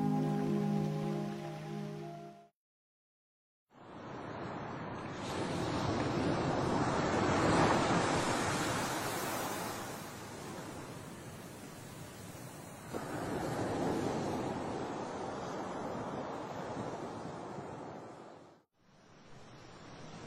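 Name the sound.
sea waves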